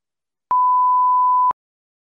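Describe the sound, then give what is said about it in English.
A single steady electronic tone, about a second long, sounds on its own as a phone call cuts out when the phone overheats in the sun and shuts off, with silence before and after and no voices. “Um, my my phone overheated and shut off.”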